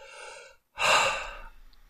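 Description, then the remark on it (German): A slow, airy breath drawn in, a brief pause, then a fuller, louder exhale that gradually fades out. Unhurried and relaxed, with no talking. “ein entspanntes und beruhigtes Atmen.”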